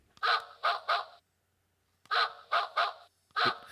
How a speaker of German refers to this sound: Das ist, das ist natürlich super, wenn der Hund neben uns liegt, das Hundebellen zu nehmen.